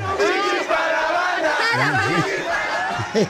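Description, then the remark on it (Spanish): A crowd of Arab fans shouts and cheers loudly for several seconds, many voices overlapping in rising and falling yells that stay at a steady, energetic level throughout. “Quiero escuchar yo a los árabes gritando.”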